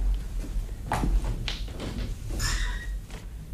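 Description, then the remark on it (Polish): A door is eased partly open with a click of the handle, a short squeaky creak and a few soft thuds, over a steady low rumble. “O, a to chociaż na chwilę uchylimy drzwi”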